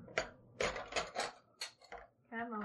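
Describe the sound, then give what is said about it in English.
Metal spoons being grabbed clink against plates in a quick series of bright taps and rattles, ending with a short ringing note, with a voice murmuring faintly in the background. “And I'm grabbing spoons. It's the sound of spoons because you don't need a fork for this.”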